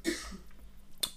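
A short, sharp sneeze bursts out, followed by a brief breathy trailing sound and a second quick puff of air about a second later.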